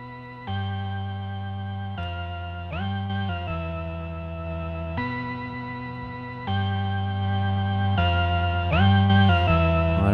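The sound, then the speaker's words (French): An Arturia MicroFreak synthesizer plays a slow sequence of sustained, buzzy notes, each shifting pitch with short glides, washed in added reverb. Steady and fairly loud throughout, with no voices. “Déjà, on a commencé avec euh, un petit son de synthé, du Arturia Microfreak, où euh, la séquence, euh, bah, je crois que c'est la première séquence qu'on a faite.”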